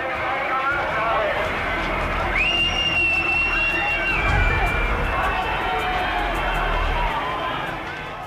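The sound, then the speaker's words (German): A dense, agitated crowd of students, hemmed in by police, flees in panic, filling the scene with overlapping shouts and the scuffle of many people running, while a sharp whistle cuts through for a couple of seconds in the middle. “Daraufhin werden die Studenten von der Polizei eingekeilt. Kommando, Knüppel frei.”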